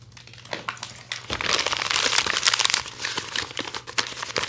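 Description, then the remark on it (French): Paper crinkles and rustles for several seconds as a woman takes out a letter to read it aloud, a dense run of crisp crackles and snaps like a letter being unfolded and smoothed out, with no voices. “Et elle sort avec cette lettre Elle commence à me la lire.”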